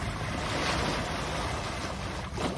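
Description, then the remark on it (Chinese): Ocean waves wash in toward the shore at rising tide, moving from right to left, with a broad, steady hiss of surf, then pull back, the roar swelling and easing over a few seconds with gusts of wind noise mixed in. “如果你戴着耳机的话，你还可以听到声音的画面，这样从右而来，然后打到左边去，然后又退回去的声音。”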